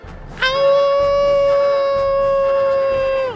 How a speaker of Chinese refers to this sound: 是不是先帮我们介绍第一位出场的动物高手剃刀郎呢？看他信心十足，正在进行胜利的嚎叫呢。